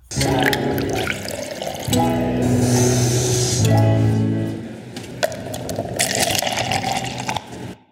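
Coffee pours steadily into a cup for several seconds, the tone rising as it fills, with a few soft splashes and drips. It is fairly loud, with no talking.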